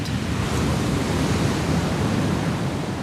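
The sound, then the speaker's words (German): Steady, roaring surf of waves at least three metres high, coming from all sides off a grey sea, rushes onto a beach in Portugal, a continuous loud, unbroken wash of breaking waves with no voices. “Die Wellen sind mindestens drei Meter hoch, kommen von allen Seiten und brausen auf den Strand zu.”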